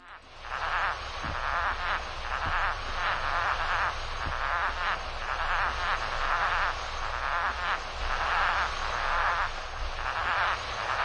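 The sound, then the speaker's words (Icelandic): A puffin calling: a steady series of rough, croaking pulses repeating in quick rhythmic bursts, moderately loud and continuous throughout, with no voices present. “Þetta var lundi á fundi í sundi.”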